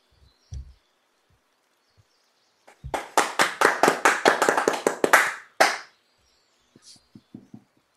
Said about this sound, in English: That was wimpy cheering. Guess the speech wasn't as great.